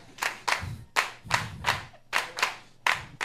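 A few people clap in a slightly uneven rhythm, roughly eight or nine sharp claps spaced about half a second apart, close and moderately loud, with no voices.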